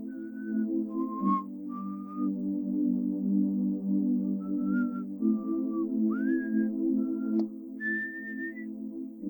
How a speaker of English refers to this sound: You keep hearing the whistling. Hello. That's also so encouraging. You can come out. You get no response. You just hear, you know, a little bit more whistling in the distance.